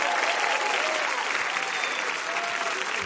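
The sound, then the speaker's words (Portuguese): Steady, dense applause from an audience welcoming Catholic priest Padre Juarez, a broad continuous clatter of many hands clapping at an even loudness for the full three seconds, with no voices standing out. “Aplaudam Padre Juarez.”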